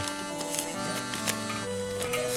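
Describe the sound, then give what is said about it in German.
Loose change is rummaged through while paying, with irregular bright metallic clinks and jingles scattered across a few seconds over a steady, low electrical hum. No one speaks. “Moment, äh, ach, dieses elende Kleingeld.”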